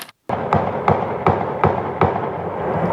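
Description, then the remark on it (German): A volley of gunshots at night, shortly after 9 pm, filmed on a resident's phone: about five sharp bangs fired at a steady, even pace, each echoing over a constant rough background hiss. “Gestern Abend, kurz nach 21 Uhr, Schüsse hallen durch die Nacht, ganze Salven.”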